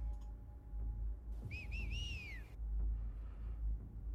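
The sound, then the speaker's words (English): A quick set of three or four human whistles, short rising-and-falling notes with the last one drawn out, heard over a low background rumble and no talking. “And and another whistle, set of whistles from another place.”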